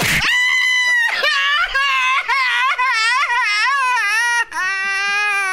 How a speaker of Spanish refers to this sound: Ah, no, no, ah, pues estoy gritando, Estoy llorando.